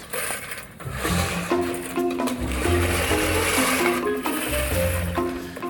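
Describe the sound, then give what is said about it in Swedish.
A lawn mower engine runs steadily, a loud buzzing drone whose pitch wavers slightly up and down over a rough, noisy whir, with no voices. “Nå, gräsklipparen såklart.”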